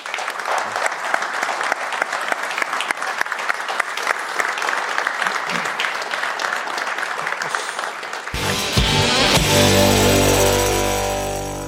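An audience claps steadily for about eight seconds for the author of a book about poaching, a dense crackle of many hands, before the applause gives way to a loud burst of music.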